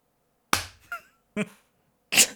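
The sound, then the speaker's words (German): A few sharp hand claps, loud and irregularly spaced over a couple of seconds, with brief gaps of silence between them and no talking. “Muss ich auch noch klatschen? Ja, klatsch mal.”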